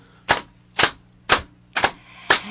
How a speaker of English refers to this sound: Let's bring the audience with us, yeah. indeed. absolutely. And then let's start clapping